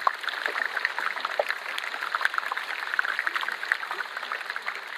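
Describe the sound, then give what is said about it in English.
Dense, continuous crackling and popping from an iceberg underwater, countless tiny sharp pops fizzing together at a steady level, bright, with no deep rumble beneath. “I was amazed at the, all the frequencies we were hearing deep, deep, deep booming sounds right up to really high treble crackling and pops.”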